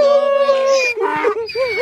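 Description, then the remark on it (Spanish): A voice imitates crying with a long, sustained wavering wail, then breaks into shorter rising and falling whimpering sobs, loud, with no other sounds around it. “Pero llorando. Ni llore, viejo, ni llore.”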